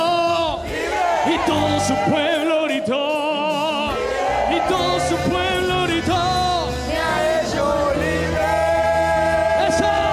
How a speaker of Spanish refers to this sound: y todo su pueblo gritó.